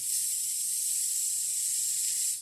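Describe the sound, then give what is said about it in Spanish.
A voice imitates TV static, the white noise of a television losing its signal, producing a steady, bright hissing rush that holds evenly for about two seconds before cutting off, fairly loud with no talking. “Como cuando se va la señal de una televisión o algo así, ¿no? Se Un ruido blanco. Estática.”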